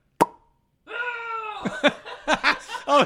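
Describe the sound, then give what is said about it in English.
A single sharp suction pop rings out at the very start, then a drawn-out vocal groan gives way to bursts of laughter and a brief exclamation. “this is the noise of a liberal coming out of their rear end.”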